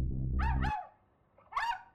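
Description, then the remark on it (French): A poodle, brought along by one of the robbers during a heist, barks in the background while the robbers debrief: two or three sharp yaps with a short pause between them, heard over a low rumbling noise that fades out after the first barks. “on entend un chien aboyer.”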